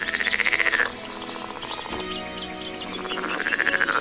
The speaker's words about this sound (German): Und auch die Frösche, die Sie gleich hören, die fühlen sich hier sehr wohl.